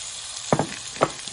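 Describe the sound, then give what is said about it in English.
Bananas, cut lengthwise, sizzle with brown sugar in a frying pan as a French toast topping, a steady bright hiss with a few sharper crackles and pops breaking through the frying noise. No one speaks. “We're going to put those bananas in there, let that go.”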